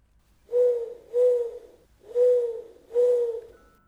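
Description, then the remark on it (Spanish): An owl hoots four times in a steady rhythm, each call a low, smooth, drawn-out note with brief pauses between, clear against a quiet background with no talking. “Dejemos esta lechuza atrás.”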